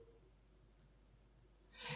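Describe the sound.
After a stretch of quiet room tone, a man lets out a single short, loud snorting breath near the end, a vocal imitation of snoring.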